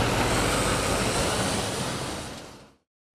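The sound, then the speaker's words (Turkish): Loud, steady roar of heavy excavation dump trucks driving at excessive speed and overloaded along a road, a dense wash of engine and tire noise, fading slightly before cutting off abruptly. “Şimdi efendim aşırı hız, hafriyat kamyonlarından bahsediyorum. Aşırı hız, aşırı yük görüyorsunuz izin de veriliyormuş.”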